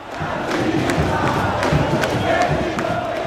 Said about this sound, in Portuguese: E o que eu mais lembro mesmo é, é o som né, da torcida, da torcida gritando é, pessoas que eu nem conhecia é, me abraçando, todos se abraçando juntos. É, a, cada, a cada lance se ouvia um grito de uh!